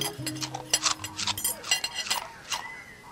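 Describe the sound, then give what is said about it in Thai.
Spoons and forks clink and scrape against plates as someone eats rice, in a quick, irregular patter of bright metallic taps, with a low hum underneath and no talking. “เอาผ้าขาวม้าพาดบ่าแล้วก็นั่งกินข้าว”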